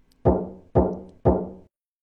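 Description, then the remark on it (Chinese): Three heavy knocks on a dormitory room door late at night, evenly spaced about half a second apart. Each is a deep, booming thud that rings out briefly before the next. No voices are heard. “可即便如此，在他们身旁的房门上，居然还仍在传出敲门的声音。”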